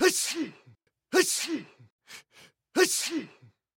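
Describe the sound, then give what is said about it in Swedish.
A voice acts out three theatrical sneezes, each a sharp, breathy burst that falls into a drawn-out voiced tail, with a couple of quick sniffing breaths between them, fairly loud. “Men så småningom veknade han och började nysa.”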